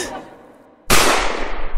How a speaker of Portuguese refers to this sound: Um tiro.